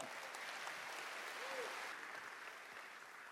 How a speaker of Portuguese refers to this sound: Quem pode dar um aplauso bem forte ao Senhor?